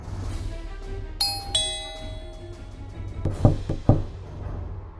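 A two-note ding-dong doorbell chimes clearly at someone's home, its tones ringing out and fading, followed a moment later by a few sharp knocks on a door over a low, steady background hum; the person inside does not reply.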